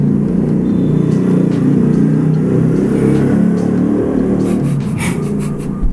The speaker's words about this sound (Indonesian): di mana sih rumahnya banyak trek-trekan aku di Cadra Asri ini jadi banyak oh. yang punya motor gede gitu